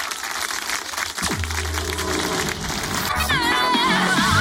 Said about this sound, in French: Applaudissements pour trio avec nous sur Fréquence Plus.